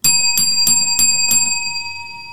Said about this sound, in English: She loves the bell. Now he's taking the bell away.